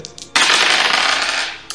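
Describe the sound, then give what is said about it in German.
Dice rattle and tumble across a hard surface in a single clattering roll lasting about a second, preceded by a couple of light clicks, fairly loud, with no talking; the dice are rolled for a stupidity check. “Würfel auf Dummheit.”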